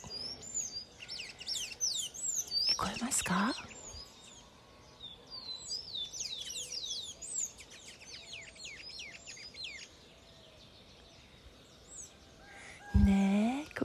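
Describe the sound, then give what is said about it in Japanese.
Busy outdoor birdsong of repeated chirps and tweets from a small brown bird, medium-sized for a small bird, in a large tree, lively, with a brief voice asking something partway through and a short thump near the end. “見える見える見えますよ鳥さんがいるあいるいる結構大きいね結構大きいというか小鳥じゃん小鳥だけど小鳥の中でも中型の鳥かな茶色い”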